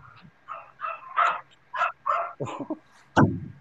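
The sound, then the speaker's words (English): A dog barks in a quick series of about eight sharp, yappy barks, with the last bark loudest and harshest. No one speaks. “I hear a dog.”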